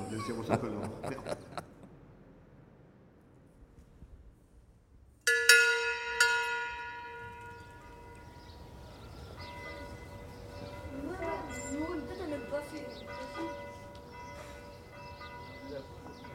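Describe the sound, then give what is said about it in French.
A church bell is struck once, loud, then hums on with a long shimmering decay. Brief talking comes just before it, and faint voices murmur beneath the fading tone. “du coup, cette cloche-là n'ira jamais à Rome”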